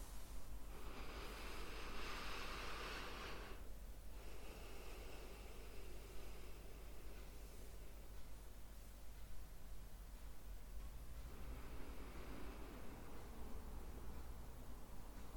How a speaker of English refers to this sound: And just make yourself comfortable. And let's start by taking a few deep breaths in and out through the nose.